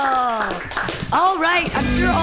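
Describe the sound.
An audience applauds a comedian at the end of his set, clapping spread across the room, while several voices cheer and whoop loudly over it in a short, lively burst.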